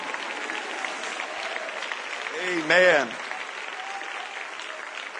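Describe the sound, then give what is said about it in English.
An audience at a church service claps steadily and continuously, a dense wash of applause filling the room, responding to a call to clap and shout in Jesus' name, while one voice shouts out loudly for a moment partway through. “If you believe God's going to do a great work in the next few moments, would you clap your hands and shout with me in Jesus' name?”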